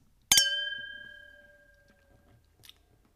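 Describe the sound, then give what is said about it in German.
Wine glasses clink together in a toast, a bright double tap followed by a clear ringing tone that fades over about a second, with no voices. The glasses hold wine from a winery in Naoussa, Macedonia. “ich würde dann mal sagen, und das heißt so viel wie auf deine Gesundheit und nicht nur Prost, äh, Steen Jammers, mein Lieber.”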